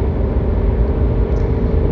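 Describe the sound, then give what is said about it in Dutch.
Steady, dense patter of rain drumming on a car roof, heard from inside the vehicle with a deep low rumble underneath, continuous and fairly loud with no voices. “Te genieten van de regen die nu eh, komt. Lekker de regen op, de, op het dak van deze auto.”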